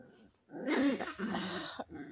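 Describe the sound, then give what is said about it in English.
A dog growls in annoyance as another dog sits on him, a low, rumbling burst lasting over a second, fairly loud, with a rough, throaty edge before trailing off into quieter grumbles. “are you hearing this he's getting so mad she's trying to take over she's trying to assert dominance by sitting on him and he's like really annoyed”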